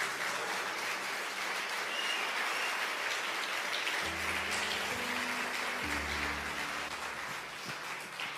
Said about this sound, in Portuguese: Palavra do Senhor você pode dar um beijo na sua Bíblia e aplaudir bem forte o nome de Jesus.